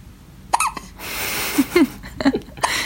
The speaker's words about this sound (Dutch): En de hik. Wel vaak de hik. Ja. Dat is normaal.